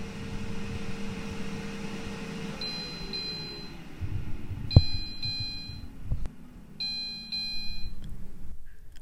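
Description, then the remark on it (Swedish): An air fryer's finished-cooking alert, signalling that chicken nuggets are done, chirps in several quick bursts of high electronic beeps, fairly loud, over a low humming hum of the running appliance that winds down. “Och det var ljudet för att chicken nuggetserna är klara.”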